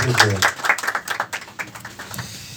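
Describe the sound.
A short burst of applause from a small group, dense clapping for a couple of seconds, with voices briefly audible over it, as an audience applauds a performer who has just ended his set.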